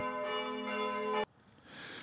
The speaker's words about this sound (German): So, wir haben das äh, Glockengeläut geduldig abgewartet und euch äh, vor der Ungeduld bewahrt, obwohl man einfach hätte skippen können.